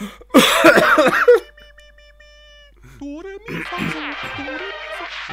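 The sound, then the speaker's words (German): A loud, harsh rasp as someone clears their throat, followed by softer voiced humming and vocal noises from the same person. “Ich räuspere mich noch, warte.”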